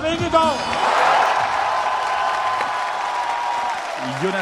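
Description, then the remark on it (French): A large crowd of cycling fans applauds and cheers loudly and continuously for Danish cyclist Jonas Vingegaard, last year's runner-up, as he comes on stage with his Jumbo-Visma teammates, a dense roar of clapping and shouts, with an announcer's amplified voice ringing over it at the start and end. “Euh, les décibels montent à chaque coureur danois qui monte sur scène et euh, vainqueur à l'applaudimètre, vous allez l'entendre, le deuxième du dernier tour.”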